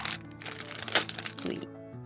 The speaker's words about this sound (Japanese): 今噛んでおりますけれどもいや夏の味だ私ガツンとみかんが一番夏の味なんだってことがよく分かりました